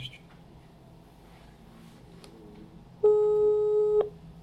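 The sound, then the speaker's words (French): A single steady telephone ringback tone, heard while a phone call is being placed, sounds for about a second, loud and clear, following a stretch of quiet background murmur. “Allez, euh, on, essaie de meubler pendant que ça pendant que ça sonne.”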